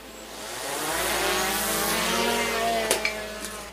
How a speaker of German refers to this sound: Jeden Tag lässt er seine Drohne fliegen, findet Ziele, lässt Granaten auf feindliche Stellungen fallen, klärt auf und sammelt Informationen. Zwölf Stunden am Tag, außer das Wetter ist schlecht, dann können die Drohnen nicht fliegen.